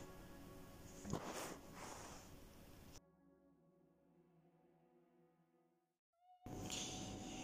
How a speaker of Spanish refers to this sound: En medio de lo que yo llamaría eh, una lucha de poder interna, entre mis gatos. Bueno, para los que no saben, vivo con 14 gatos, los cuales constantemente mantienen disputas internas entre ellos y el poder.